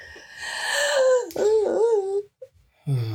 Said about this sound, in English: Just take a deep breath. Let's do some breathing exercises.